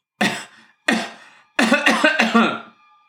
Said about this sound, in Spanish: Hace mucho tiempo que tiene usted esa tos.